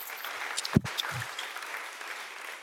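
An audience applauds, a steady wash of many hands clapping with no voices over it, punctuated by one sharp low thump.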